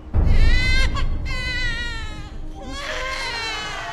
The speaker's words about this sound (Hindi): दोस्तों ये तो आपने देखा ही हुआ कि जैसे ही एक बच्चा जन्म लेता है तो जन्म के तुरंत बाद में वो रोना स्टार्ट कर देता है तो क्या है ऐसे वो बायोलॉजिकल एंड इमोशनल रीजंस जिसकी वजह से एक बच्चा रोता है